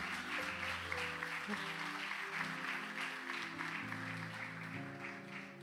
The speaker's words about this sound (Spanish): Un aplauso para esta gente.